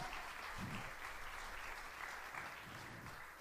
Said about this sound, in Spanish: Sí hubo un padre, sí hubo un padre que entregó a su hijo y dale un aplauso a él.